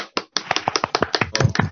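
A short burst of applause from a small group, quick irregular claps overlapping into a crisp patter at a steady moderate level, with no voices over it.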